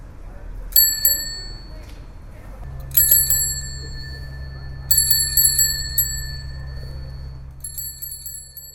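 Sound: bicycle bell ringing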